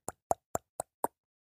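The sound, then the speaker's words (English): Five hollow tongue clicks in a quick, evenly spaced series, like a person imitating knocking on a door with their mouth, used as an email sound, fairly loud with no talking. “every time you read an email, the tongue comes a knocking.”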